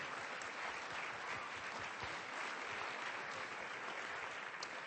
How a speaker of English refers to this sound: I am sure you're exhausted from all the clapping, but wow, wasn't it worth it? Because it was so well deserved.